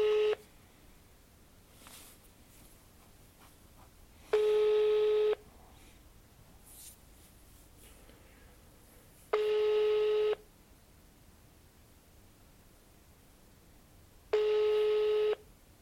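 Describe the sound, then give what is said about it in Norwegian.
A telephone ringback tone repeats four times, each steady electronic burst lasting about a second, separated by several seconds of quiet line hiss while an outgoing call waits to connect. “nå ringer Hansi oss tilbake igjen”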